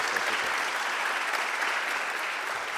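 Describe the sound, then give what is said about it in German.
A crowd applauds steadily, a dense, even patter of many hands clapping at constant loudness throughout, with no voices standing out. “Äh, noch einmal Applaus.”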